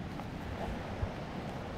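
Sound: wind and surf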